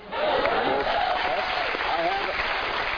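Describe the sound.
A crowd breaks into steady, sustained applause lasting the full three seconds, a loud dense wash of clapping with scattered cheers and voices mixed through it.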